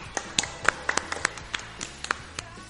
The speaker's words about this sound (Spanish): así que vamos a darle un aplauso.